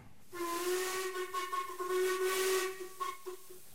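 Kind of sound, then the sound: vehicle, steam train whistle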